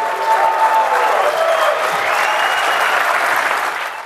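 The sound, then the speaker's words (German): Loud, dense applause from a large crowd as Brazil's President Dilma Rousseff signs the Marco Civil internet law at the opening of the NETmundial conference in Brazil, a steady roar of many hands clapping at once for about four seconds before easing slightly at the end. “Unter tosendem Applaus unterzeichnete Brasiliens Präsidentin Dilma Rousseff zum Auftakt der NET-Mundialkonferenz ein nationales Gesetz, den sogenannten Marco Civil, der Grundrechte für das Internet auf brasilianischem Territorium festschreibt.”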